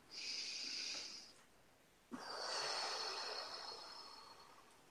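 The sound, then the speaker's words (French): A deep breath taken alone: a long hissing inhale, a brief pause, then a slightly louder, longer airy exhale that fades out slowly. No talking. “Alors, une respiration.”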